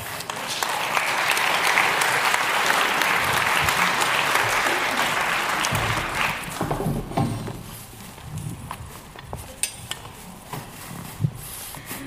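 A crowd claps steadily in a dense, sustained burst of applause for about six seconds, then it thins out into scattered handclaps, footsteps and light clatter as the room settles.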